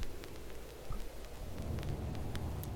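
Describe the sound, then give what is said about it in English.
A steady hiss of rain with a deep, low rumble of thunder building underneath, a continuous stormy wash with scattered sharp crackles, no voices. “Okay, but her has like a weird storm thing going right now.”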